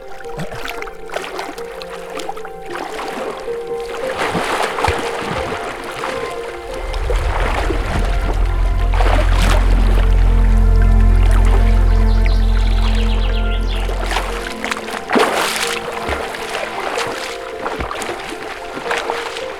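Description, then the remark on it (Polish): Irregular watery splashes and sloshing as someone swims in lake water on a warm day, with a deep rumbling swell building in the middle and fading before the splashing continues. “Ja idę popływać w każdym razie.”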